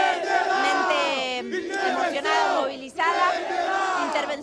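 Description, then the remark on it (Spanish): A large crowd of protesters chants loudly in unison, demanding federal intervention, voices rising and falling in repeated rhythmic phrases with brief dips between them. “Acá tienen el audio donde se escucha claramente lo que piden.”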